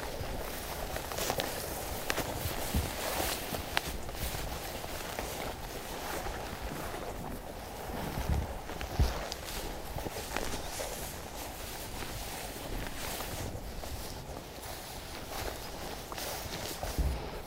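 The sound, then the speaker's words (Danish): Steady footsteps tramp along a faint trail trodden by wild boar following the water's edge, crunching and rustling through undergrowth at an even walking pace with no talking. “Det er simpelthen vildsvin, der går her, hvor vi, ja, det, vi træsker nu.”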